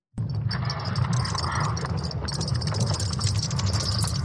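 An eerie sonified recording of Earth's magnetic field: a continuous low rumbling drone layered with crackling, creaking high-pitched textures, steady and fairly loud throughout with no voices.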